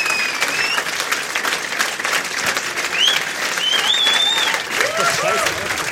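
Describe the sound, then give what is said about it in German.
Sustained audience applause, a dense steady wash of clapping with whistles and cheers rising above it, loud throughout the whole stretch, as the audience keeps clapping until the outro. “Klatscht weiter, bis das Outro kommt.”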